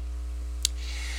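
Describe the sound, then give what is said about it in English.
A steady, low electric hum of a pellet stove blower distributing heat through a small house runs throughout, even, with one brief sharp click partway through and no voices. “So if you hear a little bit of humming in the background, that's kind of what that is. That's the blower of the uh, thing distributing heat throughout the uh, the little house here.”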